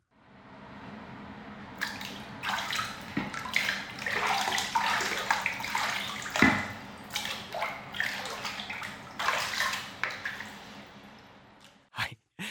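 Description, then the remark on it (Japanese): Water sloshing and splashing in a bathtub as someone takes a bath at 6 a.m. on December 3, with irregular bursts of dripping and swishing over a low steady hum, no voices. “12月3日の朝6時お風呂に入っていましたとお風呂に入って 録音してくれたので”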